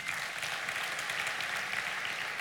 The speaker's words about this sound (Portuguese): Aplauda o Senhor, porque Deus existe.